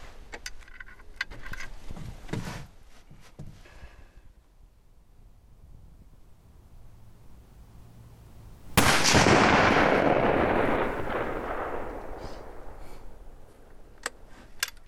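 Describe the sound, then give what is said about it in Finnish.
A single loud test shot from a rifle, fired at a target, cracks out after several seconds of quiet clicks and rustling, followed by a long rolling echo that slowly fades away outdoors. “niin on aika nähdä, että minkälainen tämä sun kiväri on toiminnassa kumpa ampuu ensin?”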